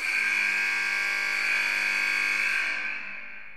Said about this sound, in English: So that buzzer means it's time for our third and final segment of the day.